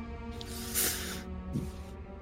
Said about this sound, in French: Et c'est à peu près à ce moment-là que, toujours en train de vous reposer, tandis que les chevaliers posent une énième amphore au pied d'une colonne, il y a un souffle, une sorte de courant d'air il traverse la, pièce de part en part.